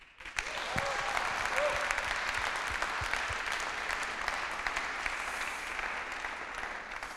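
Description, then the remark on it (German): An audience at a church service on the second Sunday of Advent breaks into sustained applause to thank those who help behind the scenes, a dense, steady wash of many hands clapping that holds at an even level for several seconds with no one speaking. “Und ich finde, all denen, die das machen, geben wir jetzt einen Applaus und sagen Danke, dass es euch gibt und danke, dass ihr Kirche möglich macht, auch auf diese Art und Weise.”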